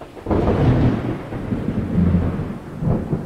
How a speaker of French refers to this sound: Il pleut.